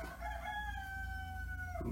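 A rooster crows loudly, one long sustained cock-a-doodle-doo that holds steady before breaking off near the end, with a low background rumble underneath and no talking.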